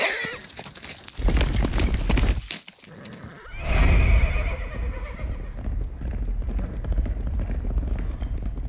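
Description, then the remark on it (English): Hooves clip-clop in a steady rhythm, broken by a loud horse whinny partway through, after which the hoofbeats carry on at a lower level. “a couple of new stallions to add to the stable. Mount up, partner. We're heading for the Stampede Tax Stables.”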